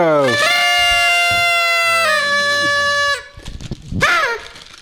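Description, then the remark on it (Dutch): A party blowout horn gives a loud, buzzy, reedy blast that quickly rises in pitch and then holds steady for about three seconds, followed by a brief wavering burst of voices. “We moeten eventjes de roltoeter”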